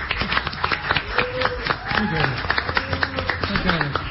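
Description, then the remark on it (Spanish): Steady, dense applause from a crowd welcoming the President of the Nation, Alberto Fernández, many hands clapping at once throughout, with voices talking and calling out over it. “un aplauso fuerte que tenemos con nosotros a presidente de la Nación, el señor Alberto Fernández, acá en el mañana.”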